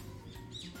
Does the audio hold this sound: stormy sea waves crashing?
no